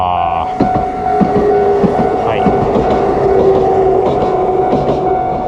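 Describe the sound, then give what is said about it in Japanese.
A train rumbles past right beside the tracks at a railway crossing, where a cyclist has stopped. Its wheels clack in an irregular rhythm over a steady tonal hum, loud and sustained throughout, with a brief spoken syllable near the start. “電車来ました”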